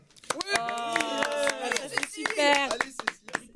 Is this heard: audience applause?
yes